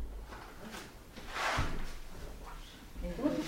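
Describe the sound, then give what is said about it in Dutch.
A door is opened with a short rustling, scraping burst and a low thump, amid faint room noise and a brief murmur of voices toward the end. “Fijn, wil je even de deur open doen?”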